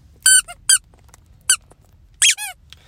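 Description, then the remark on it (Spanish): A rubber squeaky duck toy is squeezed in several sharp, high-pitched squeaks, some in quick pairs, loud against a quiet background with no talking. “Se preguntarán qué es. Es un pato. Hoy estoy con Iron Pato.”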